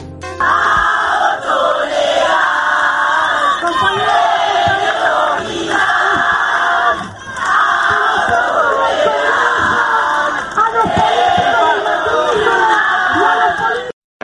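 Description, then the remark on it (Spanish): A large crowd of young women protesting at Congress chants and shouts together, loud and sustained for the whole stretch, with a few brief dips in volume as the massed voices keep pushing on, demanding passage of safe, legal and free abortion. “Por último, las pibas volvieron a copar el Congreso para pedir por la sanción del aborto seguro, legal y gratuito.”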